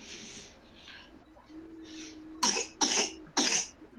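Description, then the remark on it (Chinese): A young girl with a cold coughs three times in quick succession, each cough a harsh, breathy burst that stands out loudly against quiet background noise. “感冒，咳嗽， 呛到吧？”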